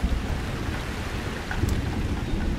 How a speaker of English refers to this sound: The sky starts pouring a cinematic rain on the compound.